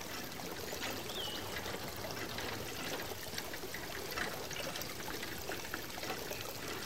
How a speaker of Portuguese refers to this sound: Perto do casarão há um canal que leva a água até uma zenha, um antigo moinho d'água ainda em funcionamento. A força da água faz gerar grandes rodas de madeira. O engenho é usado para moer o milho e outros cereais.